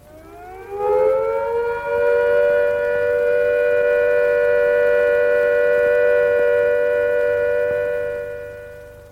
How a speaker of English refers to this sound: So that's the sound of the all clear. No more nuclear attacks incoming. Different, of course, from the ordinary air attack warning, which is a rising and falling note. The all clear is a steady note at the same pitch.